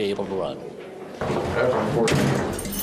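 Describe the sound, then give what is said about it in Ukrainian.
A heavy church door shuts at seven in the evening as a caucus meeting of neighbours begins in Iowa, a loud, reverberant thud partway through, followed by echoing noise while people talk in the background. “О сьомій вечора двері церкви закриваються і починається зібрання сусідів однопартійців.”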